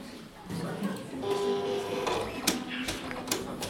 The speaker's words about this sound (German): Und da macht man es da rein in den Drucker. Mhm. Und jetzt wird es gedruckt.